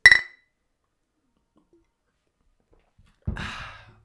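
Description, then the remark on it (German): A single bright clink of glasses touching in a toast rings out at the start, followed by a long silence and then a soft breathy exhale, as if after a sip. “Prost.”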